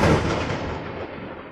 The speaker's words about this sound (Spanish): ese, es ese trueno se me hace que sí se escucha.